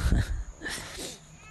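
A short, whiny cry rises and wavers for about a second, moderately loud and fairly close, heard alone with no talking over it.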